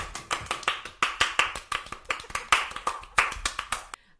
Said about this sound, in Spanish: Aplaudimos.